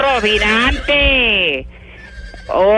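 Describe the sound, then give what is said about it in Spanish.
A horse named Rocinante neighs loudly, a long quavering whinny in a few shaky bursts that slide downward in pitch, with a brief quieter gap before the last cry. “¿A que usted quiere que, a que usted quiere ir a llevar gente a, Bogotá corriendo, hombre.”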